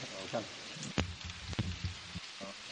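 Steady rain hisses across the whole clip, with a few sharp drips or taps standing out, and faint, indistinct voice-like sounds mixed in underneath.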